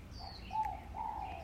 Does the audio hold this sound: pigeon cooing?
yes